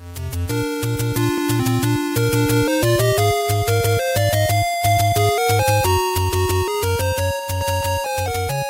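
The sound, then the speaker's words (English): Retro Super Nintendo video game theme music plays steadily, a bright synthesized melody shadowed by an echoing counter melody on the left channel, over a pulsing, rhythmic bass line, loud and continuous with no voices. “the version in A Link to the Past really emphasizes that counter melody. You can hear it over on the left running throughout the entire thing”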